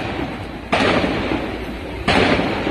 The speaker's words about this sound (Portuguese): Estão assaltando o banco do Banco Pará aqui em Cametá. Deus do céu, muito tiro, olha só. gente consegue ouvir os tiros.